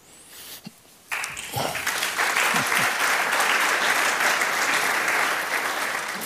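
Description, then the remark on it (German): After a second of near quiet, an audience breaks into loud, dense applause, a steady wash of many hands clapping that holds at full strength until the end. “Das ist nicht Beifall heischen.”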